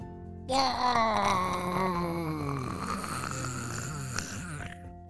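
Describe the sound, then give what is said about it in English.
A voice imitates a gummy bear dissolving as blue soap is squirted onto it: one long, wavering groan that slides slowly downward in pitch and fades over about four seconds, with no talking around it. “that was the sound of one of the gummy bears starting to dissolve from the soap.”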